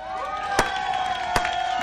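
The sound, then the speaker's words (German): A crowd reacts with applause, steady cheering and whooping voices filling the room, punctuated by two sharp, loud claps or slaps standing out above the noise. “Das ist eine Steigerung um zwei Punkte. Applaus.”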